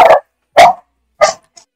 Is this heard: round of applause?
no